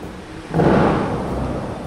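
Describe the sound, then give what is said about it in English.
Fountain water jets at the Bellagio Hotel fountain show on the Las Vegas Strip in the Nevada desert burst upward with a sudden loud whoosh, then a rushing, roaring spray that keeps going. The sound is outdoors, and no one speaks. “the sound you hear in the background is that of the hotel's popular fountain show.”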